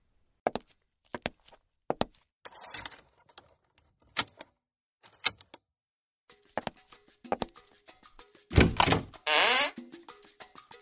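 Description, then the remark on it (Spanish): Footsteps walk at a steady pace to the door of a house, followed by the clunk and creak of the door being opened to friends arriving on New Year's, fairly clear with no talking. “camina a la puerta de su casa abre la puerta y ve a sus amigos.”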